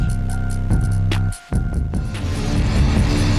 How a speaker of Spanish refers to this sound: al presentar un nuevo álbum y compartir esta nueva canción.